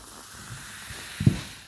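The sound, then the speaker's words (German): A steady fizzing hiss of beer foaming up as it's poured into a wheat-beer-style glass, with a short dull knock near the end and no voices. “Schäumt wie Sau.”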